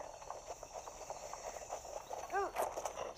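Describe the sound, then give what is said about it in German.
Horse hooves clip-clop in a steady, quick rhythm throughout, fairly soft, with a brief rising tonal chirp near the end. “Übrigens, wenn euer Pferd gerade nicht gehorcht oder so, tätschelt es mit L und äh, füttert es irgendwann mal mit Äpfeln, indem ihr einfach einen Apfel in der Hand nimmt, dann vor seine Fresse hält.”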